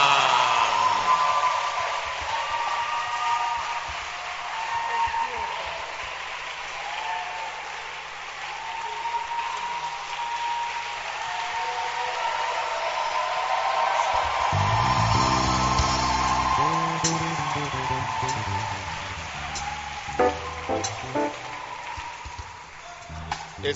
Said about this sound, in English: us to put our hands together for the two guys who came to do the